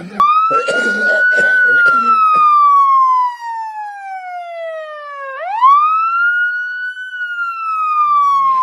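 A loud ambulance siren wails steadily, its pitch sliding slowly downward before sweeping back up, with some brief muffled background noise in the first few seconds. The ambulance is coming to pick up a sick grandfather and take him to the hospital.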